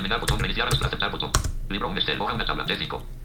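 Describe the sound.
Several sharp computer keyboard key presses click out at irregular intervals, fairly loud, as someone presses the Control+Shift+K shortcut, with a voice talking steadily underneath throughout.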